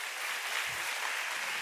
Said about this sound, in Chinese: 所以真的非常感谢神，再次把掌声要归给神。